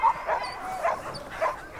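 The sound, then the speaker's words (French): Sled dogs bark and whimper in a handful of short, excited yelps spaced about half a second apart while being harnessed and grouped in teams of six in front of each sled, with a faint background hum and no one talking. “Vient ensuite le moment d'équiper les chiens de leur harnais et de les rassembler par groupe de six devant chaque traîneau”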